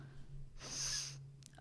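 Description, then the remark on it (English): A single forceful sniff through one nostril by a person with a deviated septum, air drawn sharply in for about half a second, fairly loud, over a steady low background hum. “Here's my good nostril.”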